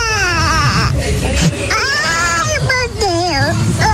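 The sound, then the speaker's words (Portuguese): A recording of loud, continuous wailing crying, sent and played back as a joke message, with wavering, sobbing pitch, unbroken over several seconds, with only a brief catch of breath near the end. “Mandou para você esse chororô, velho.”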